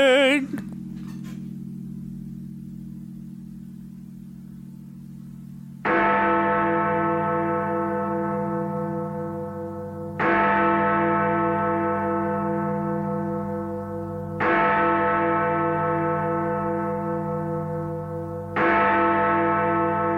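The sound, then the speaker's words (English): A Big Ben clock tower bell sound effect tolls seven o'clock: deep, resonant strikes about four seconds apart, each ringing out with a long, humming decay. No voices are heard. “we've had to add in another Big Ben sound effect for seven o'clock because we've done this at a different time every time for the last couple of weeks.”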